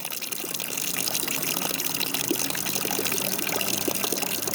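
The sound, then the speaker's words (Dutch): Water streams steadily from a bronze drinking fountain (a fontanella), pouring from the mouth of a small dragon figure: a continuous splashing gush that stays fairly loud for the whole stretch, with no voices over it. “ontwierp een zogenaamde fontanella in brons. Het water komt uit de mond van het draakje, dat refereert aan de waterspuwers van de gotische dom en natuurlijk het wapen van de familie Visconti.”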